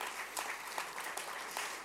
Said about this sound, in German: Haben wir eine super Lichtministerin, he? die arbeiten mit, das ist unglaublich. Hier. Ich darf denen schon mal Applaus geben. So cool, so cool.